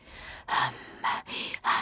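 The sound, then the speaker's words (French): A series of loud, breathy voiced inhalations and exhalations in a steady rhythm, each breath carrying a hissing, tonal quality as a person voices the inhalation, shaping it toward an 'i' vowel so the breathing becomes a song. “D'inspiration, expiration, c'est ma respiration en fait qui devient un chant.”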